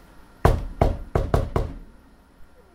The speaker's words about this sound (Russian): А, на стук «Спартак чемпион»